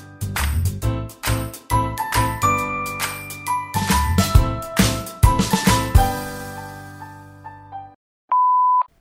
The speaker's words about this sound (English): Man, I haven't heard that theme song accountability is so important. I haven't heard that theme song probably since October